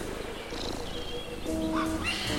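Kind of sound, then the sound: bird, exotic birds calling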